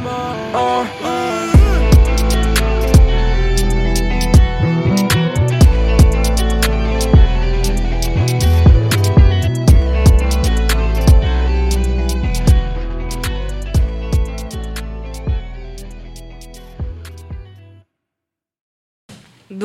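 A rap track plays loud on LLP Radio, the Lycée Louis Pasteur school radio, with heavy booming bass and sharp, regular drum hits driving the beat, then cuts off abruptly into silence just before the end.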